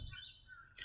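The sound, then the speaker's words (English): Faint birds chirping outdoors at the beginning of spring, a few thin, high tweets overlapping against a soft low rumble of open air, with no one talking. “I hope you can hear the birds chirping and everything uh, associated with the noise of spring.”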